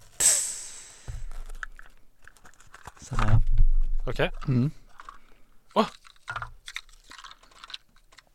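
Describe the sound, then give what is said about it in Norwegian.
A small Christmas gift box containing nuts being unwrapped, with intermittent crinkly rustles and sharp papery crackles in short bursts, broken up by a few brief spoken words and murmurs. “Ok, nå åpner jeg den.”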